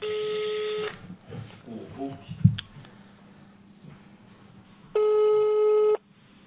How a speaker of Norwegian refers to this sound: Ring en venn. Høyttaler, da.